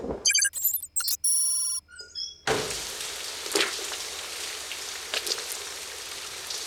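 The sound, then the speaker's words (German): A short electronic jingle of bright tones plays first, then steady rain takes over: an even hiss with occasional sharper drops and splashes, no voices. “Er ist in den Regen raus.”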